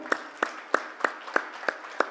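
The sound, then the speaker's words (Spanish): Steady, rhythmic clapping: seven sharp claps about a third of a second apart, moderately loud over a faint background murmur, with no one speaking. “se pueden darle un aplauso al”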